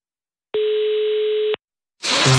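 A telephone ringback tone sounds once while a call to culture minister Bertel Hårdre goes through: a single steady, mid-pitched buzzing tone lasting about a second, then a short silence before a burst of rustling noise.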